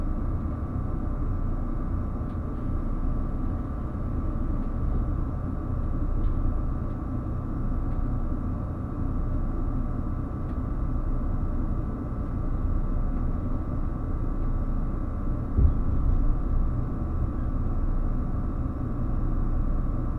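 A steady, heavy rumble of the limited express Relay Kamome No. 3 departing Nagasaki Station in Kyushu and rolling along the rails, heard from on board, with a constant low drone and faint mechanical hum throughout and no voices.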